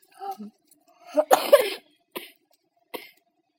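A person coughs in a harsh burst of several rasping hacks, followed by two shorter, quieter coughs spaced apart, with a brief throaty vocal sound just before.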